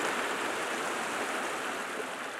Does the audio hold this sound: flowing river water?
yes